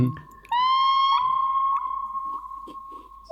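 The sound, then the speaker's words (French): A synthetic seagull-like cry from an effects unit: one loud, sustained electronic tone with slight pitch bends and wavers, lasting about three seconds, with no one speaking over it. “C'est un vrai bruit de mouette, hein Ah, c'est pas mal.”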